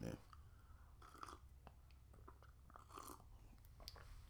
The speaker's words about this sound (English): Hold on a second. Let me get a sip of coffee, man.